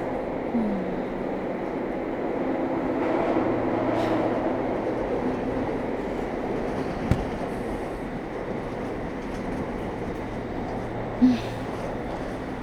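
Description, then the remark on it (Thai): A train rumbles steadily along the rails without stopping at stations, a continuous low roar with a couple of sharp metallic clanks and a brief squeal, heard from inside the carriage with no talking. “กูว่าแม่งนานผิดปกติแล้วว่ะ อืม มันวิ่งเลยไปไปะเนี่ย คุยไม่เห็นมันผ่านสถานีไหนแล้วเว้ย”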